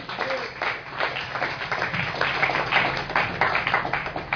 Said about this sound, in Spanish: Denle un aplauso a Cristo si está entendiendo.